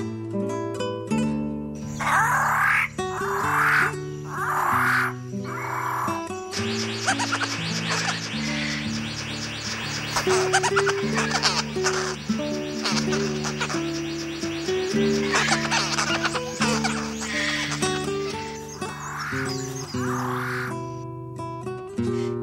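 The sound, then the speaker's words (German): Bird of paradise calls ring out loudly and continuously, a dense layering of sustained, tonal notes and harsh repeated bursts with no talking. “Das war der Paradiesvogel.”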